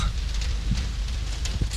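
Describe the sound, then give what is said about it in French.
Steady rain hisses, picked up by a microphone placed outside on a window, a dense wash of noise dotted with scattered drips and taps. It stays constant throughout, with no voices. “oh, il pleut, c'est un truc de fou”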